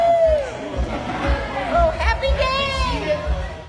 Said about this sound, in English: the sound of business returning to a landmark bar and restaurant after being quiet for six months. People are laughing. People are just having a good time. Um, the bartenders are in, um, having a great time. It's just a great sound to have back.